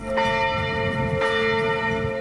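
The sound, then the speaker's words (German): The bells of the Catholic church Nordergraben in Flensburg ring out loudly and continuously at 12 noon on a Friday, their sustained metallic tones overlapping with fresh strikes about once a second, rich with humming overtones and no voices present. “Freitags um 12 Uhr läuten in Flensburg die Glocken der katholischen Kirche Nordergraben.”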